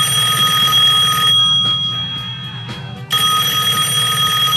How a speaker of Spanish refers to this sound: Ya está temblando demasiado el teléfono, nos voy a colgar y.